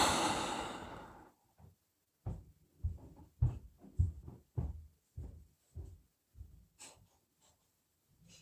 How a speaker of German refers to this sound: Ja, und jetzt kommt auch so ein Atmen, Durchatmen.